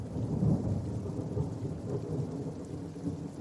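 A heavy storm roars steadily over Nordia, with dense rain and a deep rumbling wash of wind or thunder filling the low end. The sound stays loud and continuous throughout, with no voices.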